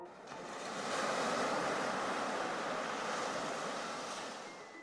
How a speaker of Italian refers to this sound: Se sulla costa arrivano onde molto basse, qualunque sia la loro frequenza, non succede nulla di rilevante, qualche conchiglia e un po' di sabbia vengono smosse.